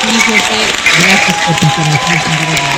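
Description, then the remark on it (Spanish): Steady, dense clapping like a crowd's applause, given for José, who is writing in from Apizaco, Tlaxcala, runs through the whole stretch at a fairly loud level, with a man's voice speaking over it. “Aplauso para José”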